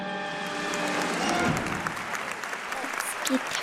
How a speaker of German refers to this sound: Vorhang zu und alle klatschen. Und ich klatsche immer genau mit den Händen aufeinander, dass dann halt schön gerade klingen. Das klingt dann einfach besser.